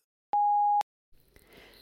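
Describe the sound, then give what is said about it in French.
A single steady electronic beep at one mid pitch, lasting about half a second with clean onsets, then silence before a faint low hiss of background noise rises. “Merci de laisser votre message après le bip.”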